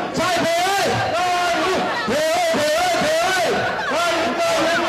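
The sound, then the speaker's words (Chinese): A large crowd of supporters of DPP candidate Tsai Pei-hui cheers loudly and without pause at her campaign headquarters during the vote count of the Nantou legislator by-election, many voices rising in repeated rhythmic chant-like swells roughly once a second, with a dense roar of shouting filling the background. “欢呼动算声如雷贯耳，票数最终跟着气势一路上扬。”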